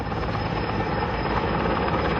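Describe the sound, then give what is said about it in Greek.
A firefighting helicopter, one of four helicopters and seven aircraft making water drops on a wildfire on Mount Athos, Greece, drones steadily overhead, its rotor producing a dense, continuous roar with a low rhythmic chop, loud and unbroken throughout, with no voices present. “7 αεροσκάφη και 4 ελικόπτερα έκαναν διαρκώ ρήψει για να μπορέσουν να περιορίσουν το μέτωπο τη πυρκαγιά.”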